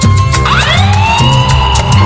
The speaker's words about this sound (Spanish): Que suene la alarma, que suenen los bomberos. La alarma de la policía, que suenen todos.